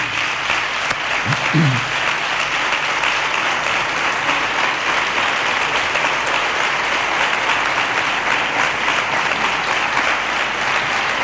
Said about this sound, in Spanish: Creo que es un galardón muy merecido para una artista nuestra que tiene muchísimo reconocimiento y pido un aplauso para Manuela Garrasco.